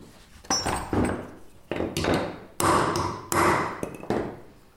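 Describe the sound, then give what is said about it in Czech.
A hammer strikes a stamp into wet leather about five times at an uneven pace to impress a logo, each blow sharp and fairly loud, with a brief ringing tail before the next. “Takže právě vždycky jako první tam boucháváme eh, logo.”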